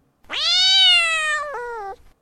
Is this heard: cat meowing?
yes